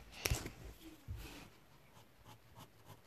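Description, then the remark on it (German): A small pen scratches back and forth on paper, colouring in a thick shape blood-red with quick repeated strokes, fairly quiet, with a couple of sharper taps near the start. “Äh, das dauert ja viel zu lange mit dem mickrigen Stift.”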